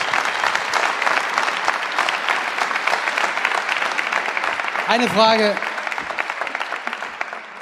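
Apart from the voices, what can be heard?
audience applause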